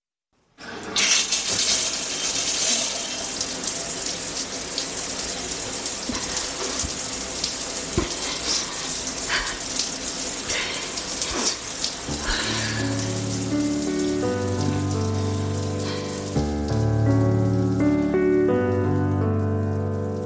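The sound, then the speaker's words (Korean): A shower in a bathroom, turned on by a woman, runs steadily, a continuous hiss of spraying water. About halfway through, soft sustained musical tones rise beneath the spray while it keeps going. “그녀는 못 이기는 척 욕실에 들어가 샤워기를 틀었다.”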